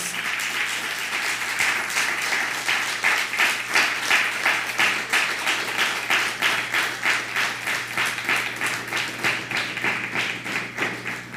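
An audience applauds steadily for about eleven seconds, the claps falling into a fairly regular rhythmic beat with a bright, crisp texture and a constant loudness, with no speech over it.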